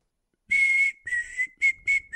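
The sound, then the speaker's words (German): A short whistled tune of four or five bright notes, some held and some clipped, with slight pitch shifts between them, clear with no talking. “die kannst du die Pfeifmelodie?”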